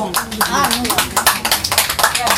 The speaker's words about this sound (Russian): Аплодисменты! Громче, громче, громче, дорогие друзья!